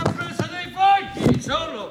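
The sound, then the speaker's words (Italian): Several loud thuds as papers are banged against a microphone, landing irregularly while a person talks over and between the knocks. “ma non sbatta non il microfono.”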